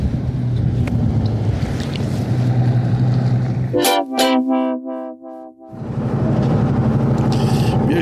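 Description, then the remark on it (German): A ship's horn blasts a long, loud, steady tone with rich harmonics for a couple of seconds as the ship sets off on the Rhine, cutting through a constant low engine rumble that resumes once the horn stops. “Wir stechen den See. Ich weiß nicht, ob ihr das überhaupt später hören könnt.”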